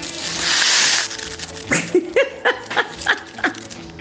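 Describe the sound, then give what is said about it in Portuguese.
A homemade rain stick gives a brief, loud rushing hiss for about a second, followed by a quick series of short, sharp yelping bursts with uneven rhythm. “fazer um pau, um pau de, é pau de não, pau de chuva”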